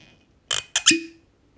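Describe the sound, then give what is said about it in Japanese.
Good-quality liquor is poured over ice in a glass, served on the rocks and filling the glass about halfway, making a few quick, bright clinks and crackles that ring briefly before fading into quiet. Clear, with no voices. “今グラスには氷だけをちょっと用意していてあのせっかくなんでまずはロックで飲んでみようと思いますでどんな感じでまあちょっと結構これいいお酒なんでねやっぱせ、あのー、一番味を感じるにはやっぱロックかなというところで注いでみようと思います”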